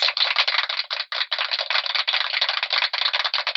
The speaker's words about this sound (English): I think the feather bottoms deserve a round of applause.